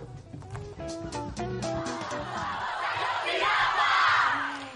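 A crowd of voices shouts and chants together, loud, with harmonic yells at first swelling into a dense roar of massed voices toward the end; the intro of a protest song.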